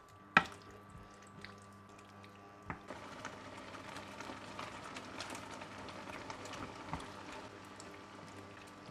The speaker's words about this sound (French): tu as l'ail aussi que tu rajoutes euh, juste après et puis d'un coup euh, les tomates avec un peu de jus de tomate et, là c'est une explosion sonore.